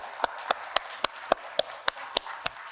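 An audience applauds the panelists at the close of an event, a steady train of sharp, crisp claps, about eleven evenly spaced hits at a quick regular rhythm, moderately loud over a faint hiss, with no talking.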